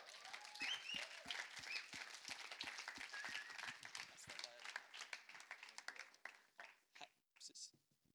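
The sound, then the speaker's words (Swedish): Steady audience applause as friends from Uppsala come up to the front, many hands clapping in a dense, crackling wash that holds for several seconds, then thins into a few scattered claps as it fades out. “Ska vi ge dem en applåd när de kommer?”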